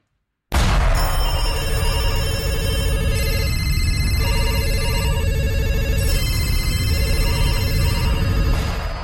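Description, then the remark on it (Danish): An old-fashioned telephone bell rings loudly and continuously, a dense metallic jangle that starts abruptly and keeps going without pause, with no voices. “Jamen, fortidstelefonen, det er den her telefon, som jeg står med hånden lige nu. Den kan ringe til fortiden. Det er gammel telefon.”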